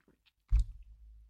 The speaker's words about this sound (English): Let me take a sip, you guys. I'm going to take a quick sip while I'm looking.